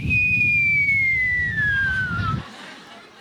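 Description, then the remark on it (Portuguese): A single long whistled note imitating an angel's flute, starting high and gliding slowly downward for about two seconds before stopping, over a steady low rumbling background. “você vai ouvir do alto um anjo que vai tocar uma flauta que vai fazer assim, ó.”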